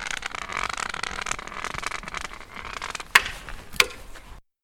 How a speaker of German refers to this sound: Das, was Sie jetzt hören, ist sein Stock, mit dem er den Boden grüßt.